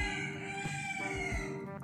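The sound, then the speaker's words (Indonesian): A rooster crows at night, around half past midnight, in one long, drawn-out call that holds steady and fairly loud for a couple of seconds, with no one talking over it. “ayamnya bunyi mulu mau ikutan dia mau ikutan dia.”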